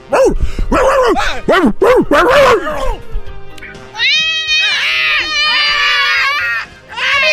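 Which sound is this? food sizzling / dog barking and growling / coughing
dog barking and growling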